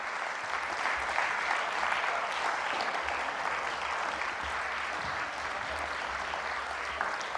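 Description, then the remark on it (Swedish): Steady audience applause fills the whole stretch as the speaker's disciples come up front, a dense crackle of many hands clapping at an even level with no voices breaking through. “Ni får fortsätta applådera.”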